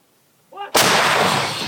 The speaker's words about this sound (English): All about increasing pressure on Russian lines as the counteroffensive looms and that crackle in the distance of small arms fire, Ukrainians trying to take down the drones being used to spot them.